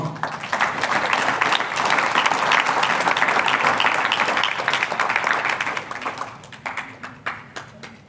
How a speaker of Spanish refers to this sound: ¿Me está escuchando? Un aplauso al Señor.